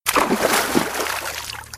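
A man plunges into freezing cold water through broken ice on a frozen lake in winter with a loud splash, followed by a second or so of churning, sloshing water as the splash settles.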